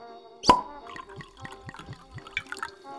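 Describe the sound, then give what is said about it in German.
Wine glugs into a glass in a quick series of rhythmic gurgles, fairly quiet, opening with a sharp clink. No one speaks. “Trinkst du ein Glas Wein mit?”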